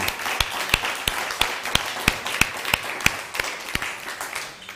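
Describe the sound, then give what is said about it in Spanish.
An audience applauds for all the nations watching, with sharp claps landing in a steady, even rhythm about three per second over a continuous wash of crowd clapping. No one speaks; the applause fades slightly at the end. “Ya en la mañana, como seccionamos a todos los que nos ven, todos el mundo, pero hoy, de manera general, a todas las naciones un fuerte aplauso.”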